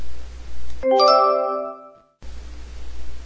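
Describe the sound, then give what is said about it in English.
A doorbell chimes with a bright, ringing ding-dong that hangs and fades over about a second, clear, set between stretches of steady hiss with no one talking. “No one makes cookies like grandma, said Mom as the doorbell rang.”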